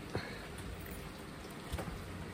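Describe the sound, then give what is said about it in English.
Light rain patters outdoors, heard from a balcony, as a steady, soft hiss with a couple of sharper drops landing. The rain is easing off. No one speaks. “but I thought I'll record this as well because it's raining. Although it's stopping, so uh, I'm on my balcony.”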